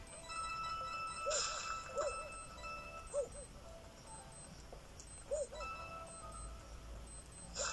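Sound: alarm clock ringing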